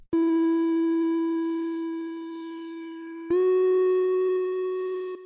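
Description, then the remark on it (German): A dry synthesizer lead sound from Omnisphere, heard without its three effects: two sustained notes with a bright, buzzy harmonic stack; the first holds about three seconds and fades slightly, then a second note starts sharply and sustains. “Das Ganze klingt ohne Effekte so.”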